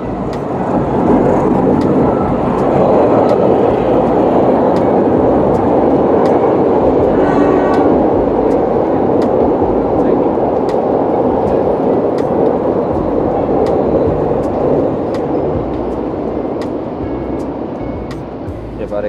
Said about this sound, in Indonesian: kereta lewat bentar